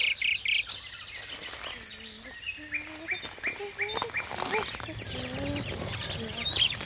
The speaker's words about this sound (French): À une dizaine de mètres d'eux, une nuée d'oiseaux s'est agglutinée autour d'un grand chêne. Ils sont si nombreux qu'on ne voit pas les branches.